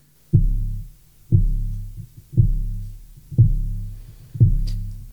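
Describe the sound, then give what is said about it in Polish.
A spoon rests on an upturned bowl that serves as a sounding board. It is gently stroked with a finger and vibrates, making five deep, buzzing bass tones in a steady, roughly one-second rhythm, each starting sharply and fading away. No one speaks. “Żeby usłyszeć miękki basowy dźwięk, trzeba umieścić łyżkę na jakimś pulde rezonansowym, na przykład odwróconej do góry dnem misce albo y, sedesowej klapie i delikatnie muskać y, łyżkę paluszkiem i wtedy roznosi się basowy dźwięk.”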